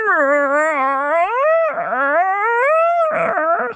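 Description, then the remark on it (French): A human voice imitates a panda waking in the morning and stretching with a long, wavering, whiny squeal that rises and falls, breaks into a brief gravelly squeak, then resumes the drawn-out whine. Loud, with no other sounds. “un panda qui se réveille le matin, puis comme cute, qui s'étire, puis comme c'est une vidéo virale sur YouTube.”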